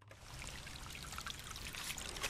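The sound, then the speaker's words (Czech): A small brook, the Malý škaredý, a tributary of the Lubina river in Trojanovice, Nový Jičín district, Czech Republic, babbles steadily, its water trickling and splashing in a continuous bright, bubbly wash, with no voices over it. “To, co já doufám posluchač snad slyší, je zurčení potučku a teď eh, kterého potoku,”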